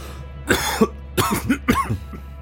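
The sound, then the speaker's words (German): Three harsh, throaty coughs in quick succession caused by dusty air, fairly loud, with a steady low hum underneath and no talking. “Die Luft ist staubig. Ihr müsst husten.”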